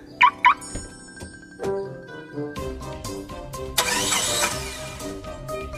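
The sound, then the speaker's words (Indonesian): Two quick electronic chirps, then a car engine cranks and turns over, settling into a steady running hum with a louder rush partway through. No one speaks. “Mah, pinjem mobil ya.”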